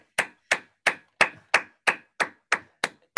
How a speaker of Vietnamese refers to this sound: chúng ta cho một chàng pháo tay thật lớn nha các anh chị